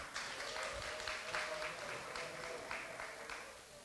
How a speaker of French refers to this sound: Magnifique, vous pouvez vous applaudir.